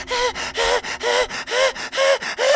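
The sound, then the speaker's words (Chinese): Heavy, rapid panting from a person leaning against a door after running through an office: about ten loud, raspy breaths in and out in quick succession, some with a faint voiced whine, steady in rhythm with no talking. “自己靠在门上直喘气”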